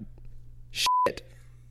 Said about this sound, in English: oh, is that a beep? Can we can we beep that one?